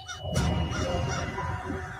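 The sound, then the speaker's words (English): Ravens calling with harsh, croaking honks that overlap and run steadily through the whole moment, fairly loud, with no one speaking. “Right after the dream, I started to notice ravens.”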